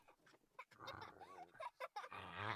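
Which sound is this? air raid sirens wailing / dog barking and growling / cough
dog barking and growling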